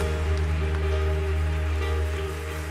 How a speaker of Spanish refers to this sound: Vamos a dar un aplauso fuerte al Señor porque hoy hay salvación en esta casa.